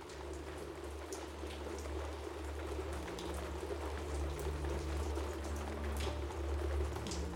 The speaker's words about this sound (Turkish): üst kattaki iki odada yatmış, çatıya vuran yağmurun gürültüsünde uyumuşlardı.